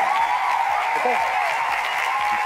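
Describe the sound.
A crowd gives Emilia Clarke a standing ovation, loud steady dense clapping filling the whole stretch at an even level, with a faint murmur of voices mixed in.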